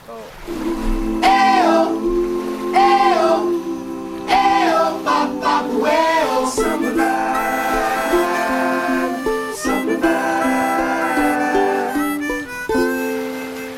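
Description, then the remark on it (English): An English-language pop song plays as music for a dance by a Chinese choreographer, a sung vocal melody with sliding, wavering notes over sustained synth chords and steady backing, loud and continuous throughout. “So, I'm going to go over to another song by a Chinese choreographer now.”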